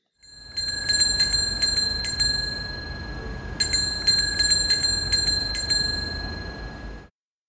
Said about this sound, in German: Also eine ganz stinknormale Fahrradklingel, ein bisschen Verkehrsrauschen im Hintergrund. Und das ist eines der Beispiele, das die NASA auf ihrer Webseite Sounds from Mars hochgeladen hat.